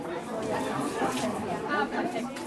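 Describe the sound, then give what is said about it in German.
Busy indoor crowd chatter at the University ENT Clinic in Heidelberg on World Hearing Day: many overlapping voices murmur steadily at a moderate level, with no single speaker standing out, filling a reverberant foyer where self-help groups have set up stands. “An der Universitäts HNO-Klinik in Heidelberg ist an diesem Samstag viel los.”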